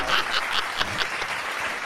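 Steady applause from a group, a dense crackle of overlapping claps with a few sharper individual claps standing out, sustained at an even level for the whole moment.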